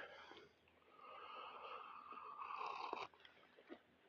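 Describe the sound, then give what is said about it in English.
A drawn-out slurping sip of hot coffee taken on a morning walk, airy and hissing for about two seconds, then cut off and followed by a couple of small mouth clicks. “First, let's have a sip of coffee.”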